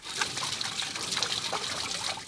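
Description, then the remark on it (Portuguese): Water pours steadily from the spout of an emergency well that supplies drinking water, a continuous trickling and splashing with no pauses and no voices. “Enquanto a água potável é garantida por um poço de emergência.”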